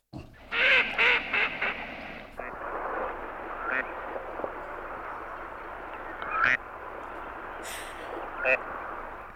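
A gadwall duck gives a series of harsh, nasal croaking calls in quick bursts near the start, followed by a steady wash of background noise with a few sharper sounds later.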